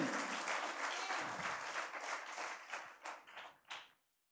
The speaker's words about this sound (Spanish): Si vas a aplaudir, hazlo con toda la fuerza. Porque es para el Señor Jesucristo.